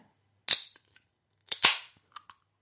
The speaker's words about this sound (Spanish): primero de todo, antes de empezar con nada, tenemos que abrir la cervecita.